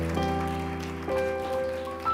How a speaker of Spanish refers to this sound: Denle un aplauso, denle un aplauso a la Al que ama nuestra alma.